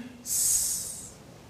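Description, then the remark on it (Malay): A single sustained hissing "sss" sibilant from a voice pronouncing the Arabic letter sin, bright and steady for about a second before tapering off, fairly loud with no other speech. “bila kita menyebut huruf itu suara kita ni akan keluar daripada antara dua gigi ni antara dua gigi kita akan keluar sifat uh, yang kuat uh, bunyi seperti suara kalau huruf sad bunyi uh, kalau sin”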